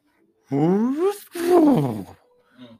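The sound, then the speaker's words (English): A voice imitates the turbo blow-off valve and engine wind-up of an MK 4 car with two sweeping, whooshing vocal bursts, fairly loud, followed by a brief faint trailing sound. “I just want to drive an MK 4 one time just to hear that fucking because it's eh, the, the blow off valve, the engine, it's it's an iconic sound. Just that wind up”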